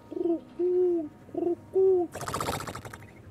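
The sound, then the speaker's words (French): A pigeon in a cage coos in four low, soft notes, alternating short and drawn-out, followed by a sudden burst of loud rustling noise. “fixe le pigeon, puis il roucoule.”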